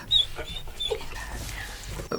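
A dog gives a few short, high-pitched whimpers and soft yips, with some quiet panting and rustling between them.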